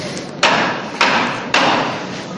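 Three sharp metallic knocks from a procession float's knocker, the call to the bearers to carry the paso de palio with the Virgen de la Estrella out to the street. The knocks are evenly spaced about half a second apart, each loud and ringing briefly over a steady crowd murmur.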